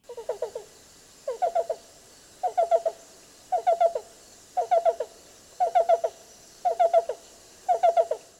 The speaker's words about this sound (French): Cet habitat, c'est l'orée des bois, bosquets et les fourrés. Et comme à l'habitude, voici la voix de l'oiseau à l'honneur aujourd'hui.